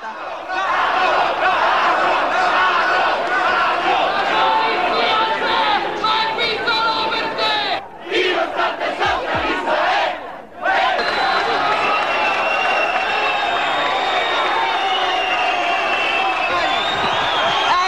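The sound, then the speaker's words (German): A dense, loud crowd of demonstrators gathered across a piazza shouts and chants "Ladro, ladro" ("thief, thief") continuously, with brief dips in the noise before the roar swells back up. “Man hört die Reporterin mit lauter Stimme sprechen, um die Demonstranten zu übertönen, die hinten Ladro, Ladro schreien.”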